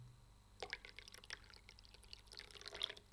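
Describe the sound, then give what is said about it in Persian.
Probiotic tea trickles into a small glass after a brief quiet moment, a soft, uneven stream with light splashy drips that carries on to the end, fairly quiet, with no talking. “امیدوارم خوب اومده باشه صدای ریزش چای نمیدونم این لیوانش کوچیکه بذارید من صدای ریزش چاییمو میخوام صدای ریزش درست نیست نمیدونم صبر کنید این شد هورا بعد از مدت ها صدای ریزش چای”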